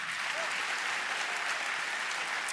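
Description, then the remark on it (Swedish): An audience applauds steadily, a dense, even wash of many hands clapping at once with no pauses, filling the whole moment with bright, hissy crackle. “Det kan också, ja, ni får gärna applådera, Gud är god.”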